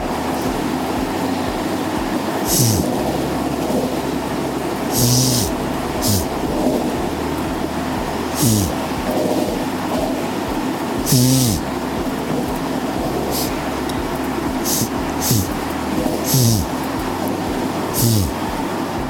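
Steady low rumble from inside a moving train, with loud rattling clacks recurring every couple of seconds as the wheels pass over track joints, and no voices.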